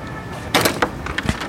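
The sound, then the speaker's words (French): A first door swings open into an entrance airlock with a brief rushing scrape, followed by a few soft knocks and clunks as it moves, with no one talking. “Passé la première porte, on se retrouve dans un sas.”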